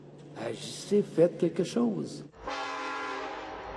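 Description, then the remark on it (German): A man talks briefly, then a freight train carrying fracking oil takes over, a steady loud rumble carrying a sustained, droning horn that holds to the end without fading. “Die Züge mit dem Frackingöl rollen weiterhin durchs Land.”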